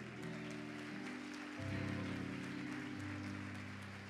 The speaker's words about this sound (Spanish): Dele ese aplauso a él.